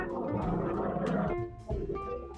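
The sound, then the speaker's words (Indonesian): A loud, steady engine rumble from a passing ship, with droning low tones and shifting pitches that fill the whole stretch, briefly dipping before swelling again. “maaf ya ada suara kapal lewat”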